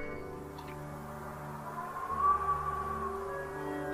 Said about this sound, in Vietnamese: Bên trong điện thoại không có ai trả lời Chỉ có tiếng ù ù như là tiếng gió